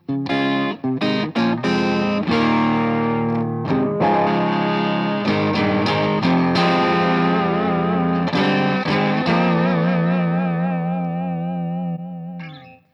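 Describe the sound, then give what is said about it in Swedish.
An overdriven electric guitar, played through a prototype overdrive pedal giving hard clipping, plays chords and short riffs with a gritty, clipped tone, ending on a long sustained chord that wavers and slowly fades. No one speaks. “Så att vill man ha en liksom lite mer transparent eh, och snygg overdrive så, så, mm, så, så gör den det här väldigt, väldigt, väldigt bra. Ja, men den där, är mer som, den där är mer hard clipping som det kallas för.”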